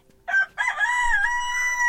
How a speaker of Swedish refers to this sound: Sedan gick de tre landsflyktiga förbi en bondgård och där satt tuppen ovanför porten och gal av alla krafter.